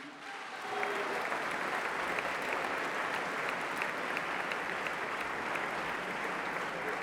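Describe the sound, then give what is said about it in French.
At a packed meeting, an audience bursts into sustained applause thanking the event's behind-the-scenes organizers, many hands clapping in a dense, steady wash that starts after a brief quiet moment and holds at an even, fairly loud level to the end. “qui ont fait circuler le truc sur les réseaux sociaux et tout ça, donc vous pouvez aussi applaudir et remercier tout ce travail des, des petites mains invisibles.”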